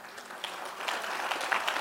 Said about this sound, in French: Oh, applaudis bien.